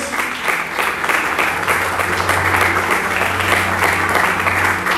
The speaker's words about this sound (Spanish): ¿Cuántos dicen amén en esta mañana y le dan un fuerte aplauso? aplauso a nuestro Dios.